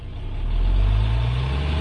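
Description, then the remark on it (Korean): A heavy dump truck engine rumbles loudly, its deep drone swelling over the first half second and then holding steady as it pulls off, with no voices. “아 덤프트럭이었구만.”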